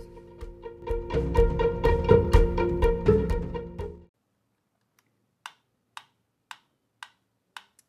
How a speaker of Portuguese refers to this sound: Passa tempo, tic-tac, tic-tac, passa a hora, chega logo, tic-tac, tic-tac, vai-te embora.